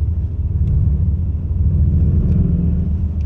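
A deep, growling synthetic engine sound from an electric car, loud, rumbling steadily through the whole moment as the car is given a little throttle, with no talking.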